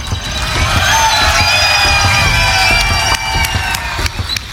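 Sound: crowd cheering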